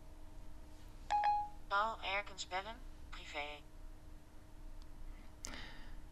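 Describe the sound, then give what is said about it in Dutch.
An iPhone dialing out a call by voice command after the home button is held: a short electronic beep, a brief synthetic voice speaking, then the outgoing call tone starting near the end, all fairly quiet. “bellen. Paul Erkens privé, dat zei ze. Dus ja, ik moet nou gewoon even wachten wat er gebeurt.”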